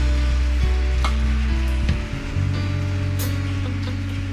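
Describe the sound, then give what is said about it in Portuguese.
A church audience claps for the Lord in a dense, steady wash of applause that holds for several seconds, with sustained low musical tones droning underneath and no voices. “Vamos aplaudir ao Senhor. Aplauda Ele.”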